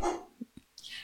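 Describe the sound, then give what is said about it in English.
A dog barks a few times in the background, short muffled yaps, with a brief higher-pitched sound at the end and no one speaking. “Sorry for my dog barking in the background there.”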